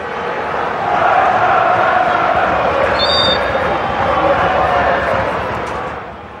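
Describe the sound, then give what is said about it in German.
A dense stadium crowd of about 1,500 Werder Bremen fans sings and chants together at a football match against Freiburg. The loud, steady roar swells after the first second and holds throughout. A brief high whistle-like tone cuts through midway. “Werder spielt meisterlich und 1500 Bremer Fans sind im Stadion. Das ist damals erstaunlich viel und hört mal, was die singen.”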